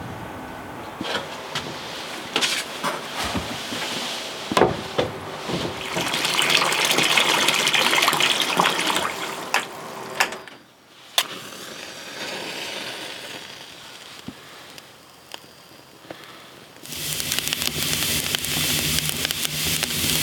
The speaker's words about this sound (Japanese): 今朝は絶景を眺めて入る五右衛門風呂のいい音